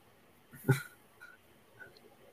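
A single short bark bursts out once in a quiet setting, followed by a couple of faint, brief sounds trailing off afterward.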